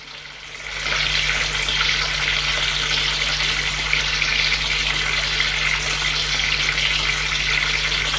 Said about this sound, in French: Pascal est allé dans la salle de bain prendre sa douche